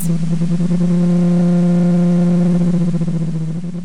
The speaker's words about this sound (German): einen riesen Krach unter Wasser. So wie der Frachter, der oben an uns durchfährt. Er wirft seinen grossen Schatten aufs U-Boot und der Wal schwimmt davon.